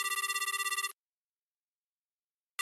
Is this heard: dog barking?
no